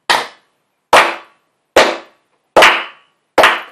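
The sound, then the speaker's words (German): Five loud, sharp claps land slowly and evenly, about one every second, each ringing out briefly before the next, a deliberate, unenthusiastic slow clap with no voices. “Dafür gibt's kurz einen Applaus.”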